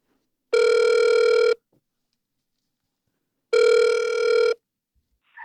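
A phone line rings out twice with steady electronic ringback tones while calling a designer during the Design FM show, each tone lasting about a second and separated by a two-second pause of silence, clear.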